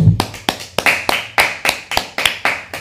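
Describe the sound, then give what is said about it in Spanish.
Steady rhythmic clapping, about ten sharp, even claps roughly three per second, each with a brief ringing tail, fairly loud, with no voices over it. “Fuerte aplauso.”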